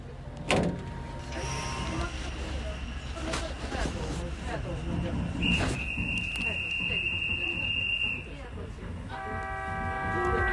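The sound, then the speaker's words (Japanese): An old retro passenger train with retro seats, the Hoshizora (Starry Sky) train heading to Okuōikojō Station, rolls along the rails with a steady low rumble and clanking joints, a sustained high wheel squeal midway, a horn-like tone near the end, and muffled voices. “まもなく星空列車出発しますまだ空が明るくて山々が美しいですねレトロな列車レトロなシートに乗って今から奥大井古城駅に向かいます”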